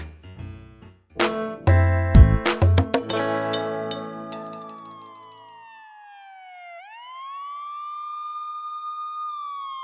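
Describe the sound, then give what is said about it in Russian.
An ambulance siren wails outside, a steady rising tone, following a burst of clinking and clattering household sounds; no one speaks. The ambulance was called for a sick neighbour. “Кто-то из соседей и вправду заболел Даже скорую вызвал Хорошо все-таки, что она не к нам едет”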